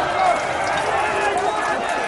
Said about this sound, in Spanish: Es momento para la victoria. Miles de gargantas gritan enfervorizadas.